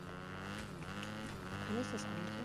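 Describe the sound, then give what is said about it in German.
A video game motorcycle engine drones steadily throughout, a loud, buzzing idle with a rich harmonic hum and no breaks, while a voice briefly murmurs underneath. “Ah, hier ist noch ein Motorrad.”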